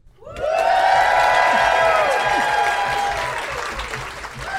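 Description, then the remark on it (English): A live audience of New York history lovers at Caveat, a performance space on Clinton Street on the Lower East Side of New York, bursts into loud, sustained applause with cheering and high whoops, the clapping dense and steady after a sudden start, holding strong for several seconds with shouts rising above it. “Wow, that is not a sound effect, Greg.”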